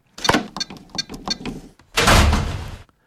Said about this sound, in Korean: 현관문을 열고 들어온 사람은 저희 어머니였습니다.